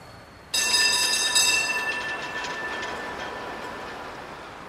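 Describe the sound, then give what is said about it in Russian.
A round-cabin tram taxi pulls in, its wheels letting out a sudden, loud metallic screech that holds for a few seconds and slowly fades, with no voices. “Бонни махнул рукой круглой кабине трамвайного такси.”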